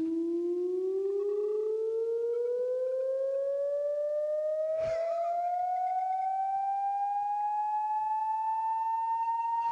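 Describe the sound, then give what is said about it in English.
A steady, really low-frequency electronic synthesizer tone that slowly glides upward in pitch for the whole stretch, loud, interrupted once midway by a short crackling click, heard as a man touches the device to his inner lip. “so that sounds so Buchla to me”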